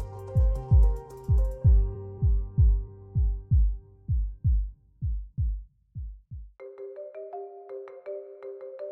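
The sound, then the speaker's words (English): A loud, deep heartbeat thumps steadily, about two beats per second, gradually softening before stopping. A bright electronic phone ringtone then starts playing on its own. “They try to drown out the sound of the clock and the thump of their hearts as they will the phone to ring.”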